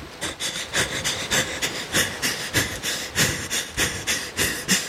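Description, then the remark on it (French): A person fakes being out of breath in a short take, panting quickly in a steady, rapid rhythm of sharp inhales and exhales that continues throughout. “Euh, une prise assez courte de simulation de d'essoufflement.”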